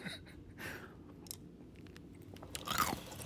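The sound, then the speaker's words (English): Crunching of someone chewing ice cubes, with a few sharp cracking bites spread irregularly over a few seconds and softer grinding between them, the last crunch the loudest. No one speaks. “I don't chew my ice because it's enjoyable.”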